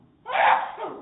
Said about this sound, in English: Bless you in Jesus' name.